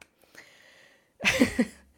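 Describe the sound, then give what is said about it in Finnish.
A brief smattering of hand claps, just a few quick sharp slaps bunched together in under a second, preceded by a faint hiss and a soft tap. “Tämä on sun, en murhaa ketään osalle nämä aplodit.”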